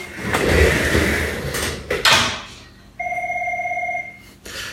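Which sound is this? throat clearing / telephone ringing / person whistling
telephone ringing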